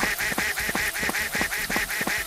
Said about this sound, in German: Wenn sie nicht vom Regenschirm bedeckt ist, wird sie mit einer hohen Tonhöhe quacken.